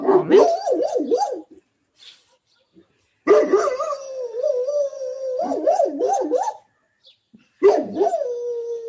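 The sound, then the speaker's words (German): A Great Dane and street dogs outside around the corner bark and yowl loudly in three long, drawn-out bursts with wavering howl-like pitch and short pauses between. A person says a brief word at one point. “das ist Daisy also im Hintergrund, meine Dogge. Und draußen spellen gerade die Straßenhunde hier irgendwo um die Ecke”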